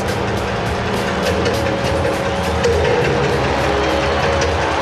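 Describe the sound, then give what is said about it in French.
A stadium crowd of 30,000 spectators cheers continuously for a singer taking the stage at a concert in the rain, a dense roar of thousands of voices that stays loud and steady throughout, with scattered shouts and claps rising out of the wash of noise. “30 000 spectateurs acclament leur idole.”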